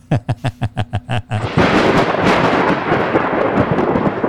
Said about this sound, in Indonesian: ah si aneh deh cuacanya juga nih kenapa mendadak aneh sih kok hujan badai begini